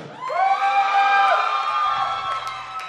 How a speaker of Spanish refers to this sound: Esta es una noche especial porque tenemos aquí a una personita especial que queremos que le brinden su cálido aplauso.